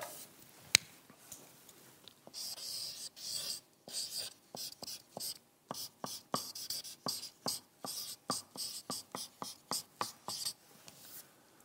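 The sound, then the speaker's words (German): A person writes with a different pen, scratching across paper in quick, repeated strokes, a steady rhythm of short rasping bursts with no talking. “So, ich nehme einen anderen Stift, den sieht man nicht gut.”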